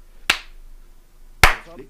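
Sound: hand clap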